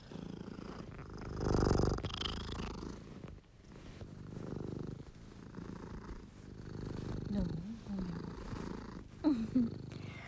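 A cat purrs steadily up close while kneading a cushion, a low continuous rumble that swells and fades with each breath, with faint rustling movement and a couple of brief soft chirps near the end.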